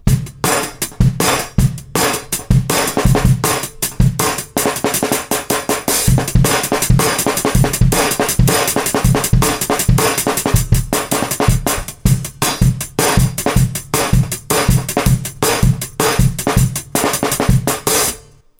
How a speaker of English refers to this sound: Number one, strike the drumble to create an electronic clap sound, or use the remainder of the drumhead to create a muted snare sound.